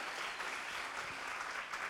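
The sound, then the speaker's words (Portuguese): A church audience breaks into steady applause for two newcomers who accepted Jesus and received Bibles, a dense, continuous patter of many hands clapping at an even level for about two seconds with no voices rising above it. “Aplauda a vida deles.”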